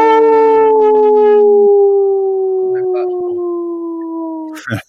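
A wolf howls in a long, sustained wail that slowly drifts downward in pitch, loud, with a second voice joining briefly before it cuts off abruptly.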